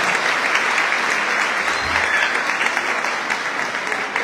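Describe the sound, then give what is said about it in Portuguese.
A steady round of audience applause for an honoree at a tribute evening on 8 March 2022, dense and even, with many hands clapping together at a constant loudness from start to finish and no voices standing out. “Vamos aplaudir”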